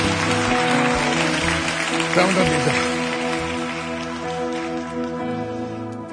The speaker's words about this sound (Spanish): Estos son nuestros héroes y los que están allá con sus hijos, cuidándolos. Denles un aplauso de agradecimiento.